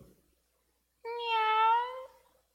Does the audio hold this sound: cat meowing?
yes